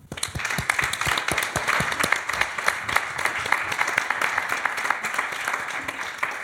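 An audience breaks into steady applause, a dense patter of many hands clapping at an even loudness that holds for several seconds without any talk over it.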